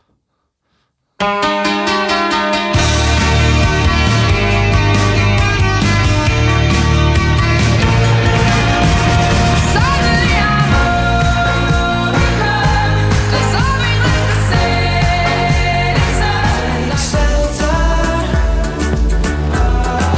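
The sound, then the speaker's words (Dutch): Loud, full-band popular music with a steady beat, bass and bright layered instruments starts after a brief silence and plays continuously, with no talking over it. It is music from a festival offering pop, rock, world, reggae and electro. “En er is heel veel muziek in de vorm van pop en rock en world en reggae en electro.”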